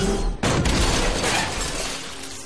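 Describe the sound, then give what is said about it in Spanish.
A huge hanging lamp crashes down onto a man, Chaos, with a sudden loud impact, followed by a noisy, rattling burst of breaking and clattering debris that slowly fades over a couple of seconds. “Chaos se zafa, enseña el puño a Gon y la lámpara lo aplasta.”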